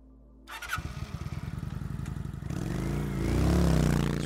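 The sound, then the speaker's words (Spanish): A motorcycle engine cranks and catches with a rapid, sputtering idle, then revs up into a louder, rising roar, with no talking. “Subirte a la moto es un alivio.”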